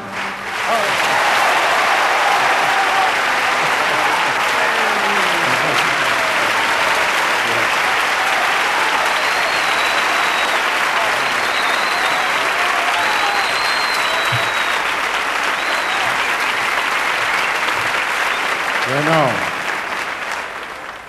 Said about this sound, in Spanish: Realmente estos aplausos maravillosos para Paco y para mí y sobre todo para esta canción me enorgullecen enormemente